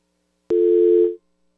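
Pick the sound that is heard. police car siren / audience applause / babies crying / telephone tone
telephone tone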